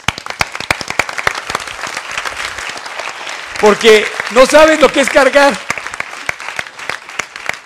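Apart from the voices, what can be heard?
audience applause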